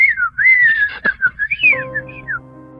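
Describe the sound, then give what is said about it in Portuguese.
A person whistles an imitation of little birds: a run of high, warbling chirps and trills with quick pitch swoops, followed near the end by a sustained low tonal hum underneath. “Da estúdio, só ele ouviu os passarinhos que eu subiava lá.”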